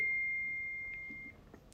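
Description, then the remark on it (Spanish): A phone's text message alert, for a message sent by the owner's son, sounds as a single steady, high electronic beep lasting about a second, clear, then fades into quiet room noise with no one talking. “mi hijo me está mandando mensajes, espérenme.”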